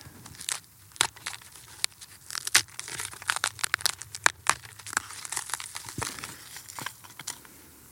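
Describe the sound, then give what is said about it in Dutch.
Brittle charred wood from a piece of tree on a burned-off plain crumbles and snaps between fingers, a dry run of crunchy crackles and sharp little breaks lasting several seconds, with no talking. “Hier zie je nog een stukje van een eh, boom. Ik kan het zo kapot maken.”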